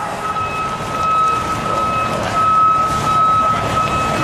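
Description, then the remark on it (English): A truck's reversing alarm sounds a steady high-pitched beep, nearly continuous with a couple of brief breaks, over a rumbling engine and noisy outdoor crowd ambience at a protest in Chinatown, where protesters sit down to block the truck from putting up fences. “We're going to do this civil disobedience to block this truck.”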